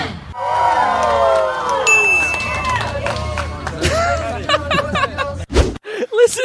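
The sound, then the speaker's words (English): A lively crowd cheers and chatters as a performer juggles, then a single bright ding rings out and lingers as he stops juggling. The audience's disappointed reaction follows, with the applause breaking into scattered claps and murmurs. “If you pay close attention to the audience's reaction, you can actually hear their disappointment. So listen for the ding when he stops juggling.”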